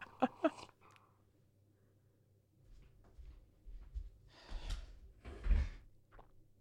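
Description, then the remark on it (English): Someone knocks on a door with two sharp knocks, then the door is opened and later shut, with a low rumble of movement, a scraping swing and a solid thud. “Um, since everybody's getting up, I'm gonna check to see who's knocking on my door.”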